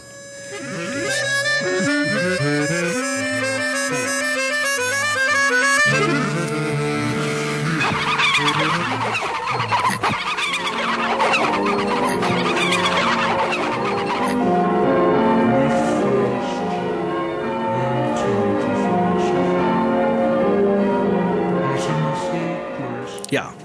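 Experimental tape-loop music collage written for the film Wonderwall, with dense layered tones that cut abruptly between contrasting sections, shifting from bright repeating figures to a swirling, smeared wash and then steady droning chords.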